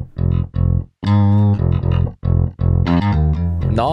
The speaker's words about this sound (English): And if I go back to my main, I could turn down the digi slap. There we go. So we're just hearing the effects from the electric bass.